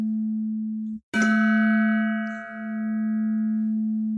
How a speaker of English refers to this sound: On top of a hill in a faraway land, a gong sounded. A gong sounded. a gong sounded.